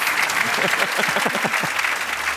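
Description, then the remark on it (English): Sustained audience applause for Gareth Morgan, Kate Frykberg and Julian Baggini, a dense, steady wash of many hands clapping at moderate loudness, with a few faint voices and murmurs mixed in beneath it. “Hey, ladies and big round of applause for Gareth Morgan, for Kate Frykberg, Julian Baggini.”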